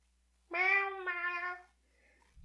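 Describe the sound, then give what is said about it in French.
A single drawn-out kitten meow, clear and fairly loud, rising then sliding down in a two-part cry, with no talking over it, followed by a short faint knock. “Il a dit prochain sujet, mais en fait, il voulait dire euh, c'est parti. Pas habitué, chaton.”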